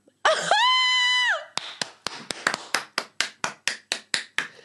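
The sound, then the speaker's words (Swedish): A short, high whooping cry is followed by about a dozen crisp hand claps in a steady, even rhythm, fairly loud, with no talking. “Verkligen värt en applåd.”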